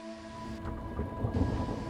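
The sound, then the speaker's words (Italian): A steady hiss of heavy storm rain with a deep, rolling rumble of thunder that swells and churns through the second half, from a thunderstorm with lightning moving down behind the mountains toward the sea, with no voices. “Amnesia giù averse, il temporal con sua spatiusada d'losne tru, all'era tramidasse all'angiù, drera le montagne, verso il mare e per là via trovata a tutta sua buria.”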